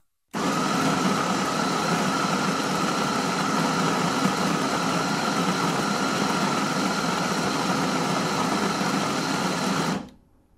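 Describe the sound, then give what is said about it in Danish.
A coffee grinder filled with coffee beans runs for about ten seconds, grinding them for fresh, strong black coffee, with a loud, steady motorized whir and gritty grinding. It starts abruptly and cuts off just as suddenly, with no voices. “Han hælder dem op i kværnen og starter.”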